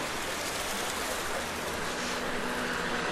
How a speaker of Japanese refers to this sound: この音は雨ではなくて噴水